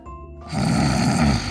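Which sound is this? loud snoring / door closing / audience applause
loud snoring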